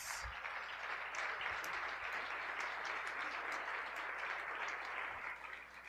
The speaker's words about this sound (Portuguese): Aplauda o Senhor Jesus.